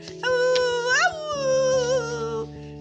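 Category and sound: animal, dogs howling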